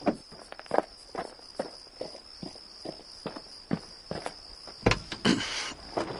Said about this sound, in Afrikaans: maak oop jou kar deur, ek wil inklim.